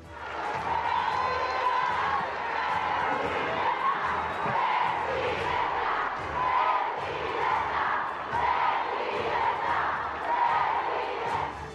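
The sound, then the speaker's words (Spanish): In Mexico, a large crowd of women attendees, fellow female governors and legislators cheers and chants steadily for about twelve seconds for the female head of state, calling her president. A loud, dense wash of voices with rhythmic swells suggesting a repeated chant over continuous shouting. “La mandataria fue vitoreada y llamada presidenta por las asistentes, sus homólogas y legisladoras en varias ocasiones.”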